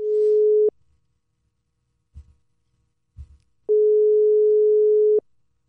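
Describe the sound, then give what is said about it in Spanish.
A telephone line tone heard while a call is being placed again during a live broadcast: two long, steady electronic beeps separated by a pause, with a couple of soft low thumps in between. “Vamos a llamar ahora otra vez.”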